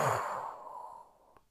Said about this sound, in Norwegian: Pust godt inn, og hold pusten. Og pust ut.